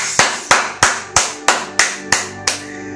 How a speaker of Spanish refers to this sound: ¡Aplausos!